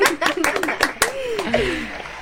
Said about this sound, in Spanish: Eh, la primera ganadora y nuestra primera llamada de Holísticamente. yeah. bravo, ¡Aplausos!